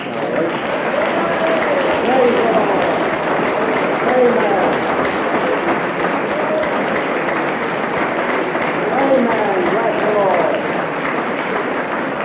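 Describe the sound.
An audience claps for Jesus loudly and steadily for about twelve seconds, a dense, continuous patter of many hands with scattered voices calling out over it.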